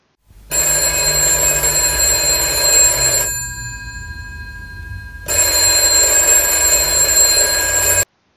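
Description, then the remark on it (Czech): An old-fashioned telephone bell rings loudly in two long bursts, a rapid metallic trill lasting a few seconds each, separated by a brief pause with only faint background hum. “My naštěstí máme přepis tohoto telefonu a audiozáznam a my vám ho teď pustíme.”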